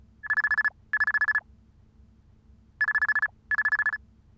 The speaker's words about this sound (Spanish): Enseguida sonó el teléfono.